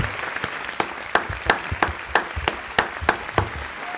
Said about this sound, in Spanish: Estos aplausos para ti.